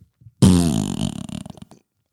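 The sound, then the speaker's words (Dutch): A single loud, drawn-out fart sound effect played by a Google smart speaker, starting abruptly and sputtering with a rippling, flappy texture for over a second before trailing off into silence. “dan zeg je, hey Google, hoe klinkt een scheet? Dit is een scheet.”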